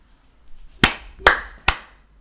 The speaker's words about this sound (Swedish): ta, ta några klappar.